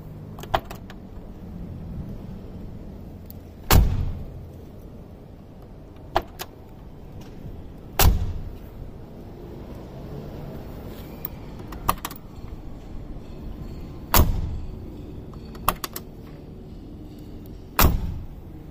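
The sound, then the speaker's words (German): The heavy door of a Mercedes G-Class car slams shut repeatedly, five or six loud solid thuds spaced a few seconds apart, with faint clicks and rattles of handling and a low background hum between them. “Und damit ihr ja, versteht, was ich meine, habe ich euch dann natürlich mal wieder ein Soundbeispiel rausgesucht, wie sich das anhört, wenn man bei so einer G-Klasse ähm, die Tür zuwirft.”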